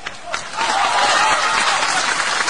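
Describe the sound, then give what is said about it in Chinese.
A studio audience of the Chinese TV show Artistic Life (艺术人生) breaks into applause welcoming Feng Gong, starting with a few scattered claps and quickly swelling into a dense, steady wash of clapping that holds loud to the end. “让我们掌声有请本期艺术人生的主人公冯巩。”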